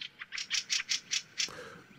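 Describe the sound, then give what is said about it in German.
A fieldfare colony's harsh alarm chatter as other fieldfares join in scolding an intruding magpie: about seven rapid, grating chack bursts in quick rhythm, then a quieter stretch with faint background noise. “Schnell stimmen andere Wacholderdrosseln in das Gezeter mit ein.”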